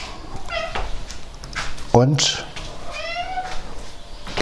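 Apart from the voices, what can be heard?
cat meowing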